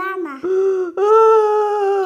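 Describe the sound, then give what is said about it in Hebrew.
A voice mimics a child crying over a broken magic trampoline, with drawn-out, wavering wails in two sustained bursts, loud, tonal and whiny like an upset little kid sobbing. “למה, למה, למה אתה בוכה?”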